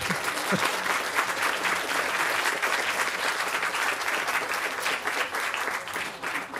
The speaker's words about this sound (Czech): Děkujeme za váš spontánní potlesk.